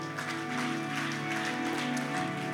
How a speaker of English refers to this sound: Would you clap your hands unto him?